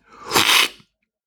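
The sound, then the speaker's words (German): A single loud, forceful slurp of coffee from a round, wide tasting spoon during a coffee tasting: a harsh, hissing rush of air and liquid lasting under a second, followed by silence. “Ja, dieses laute und fast erschreckende Geräusch äh, beim Schlürfen, das war in diesem Raum auch öfter da.”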